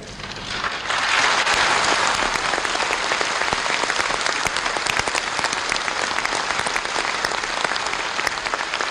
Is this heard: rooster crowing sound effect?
no